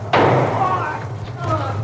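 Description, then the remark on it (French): A single sharp gunshot cracks out of an old live broadcast recording as a man opens fire on Lee Harvey Oswald, hitting him in the stomach in a police station basement, followed by a burst of crowd commotion and shouting voices over a steady low mains hum. “Un homme se précipite sur lui ouvre le feu.”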